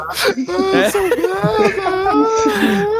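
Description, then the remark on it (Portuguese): A voice mimics someone starting to cry, with wavering, whimpering sobs and a whiny rising-falling pitch, loud for about three seconds with no real words. “Começa a chorar, né?”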